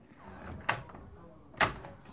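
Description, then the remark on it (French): A newly installed door is handled, with two sharp knocks about a second apart, like a latch clicking and the door thudding shut, over a low background murmur. “Et du coup, on vient juste de poser une porte pour pouvoir être un peu au calme.”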